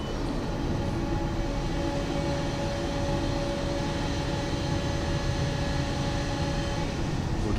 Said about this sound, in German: So, dann würde ich jetzt mal einfach die Türe vom Pferdeofen aufmachen.